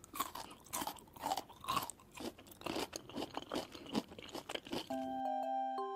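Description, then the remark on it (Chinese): A cat eats food with crunchy, wet chewing that repeats in quick, uneven bites for about five seconds, with no voices. A short sustained musical chime rings at the end. “小猫给了一个自己心安理得的借口，之后便津津有味的吃了起来。”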